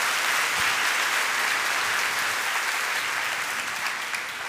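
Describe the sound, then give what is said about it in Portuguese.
An audience applauds the Lord in the name of Jesus, a dense, even wash of many hands clapping at full volume throughout, tapering only slightly at the very end, with no voices standing out. “Pode dar salva de palmas ao Senhor, em nome de Jesus.”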